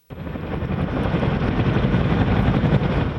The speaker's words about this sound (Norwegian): Et amerikansk militært helikopter lander på en slette i Afghanistan. Soldater som løper gjennom en sky av støv for å klyve om bord.